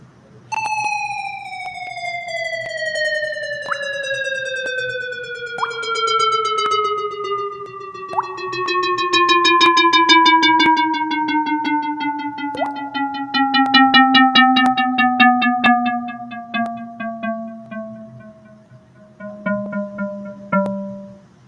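A sustained electronic tone, a sonification of a line graph of data points, glides slowly downward in pitch for about twenty seconds, punctuated by four brief water-droplet plinks marking the highest peaks, spaced irregularly across its first half. No one speaks.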